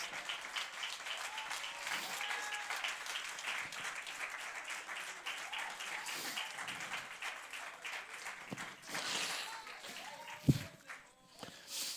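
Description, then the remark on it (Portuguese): An audience applauds Christ Jesus steadily for several seconds, a dense, even wash of many hands clapping, with a few sharper claps standing out near the end as it tapers off. “Você pode dar um aplauso a Cristo Jesus?”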